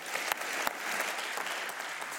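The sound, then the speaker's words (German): Steady audience applause in Vienna for journalist Katrin Kalweit, Süddeutsche Zeitung correspondent, a dense wash of many hands clapping at an even level with a few sharper claps standing out, and no voices over it. “Applaus bitte für Katrin Kalweit.”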